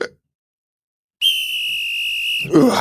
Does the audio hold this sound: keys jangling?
no